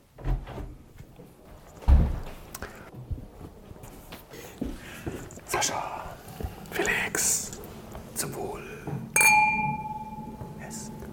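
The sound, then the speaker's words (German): Glasses clink and clatter, with a gentle pour and fizzing of an anniversary pét-nat sparkling wine, Bitches Brew from Weingut Jürgen Leiner in the Pfalz, in between, followed by a bright ringing clink near the end; quiet handling noises throughout and faint voices in the background. “So, wir trinken einen Jubiläumsschaumwein.”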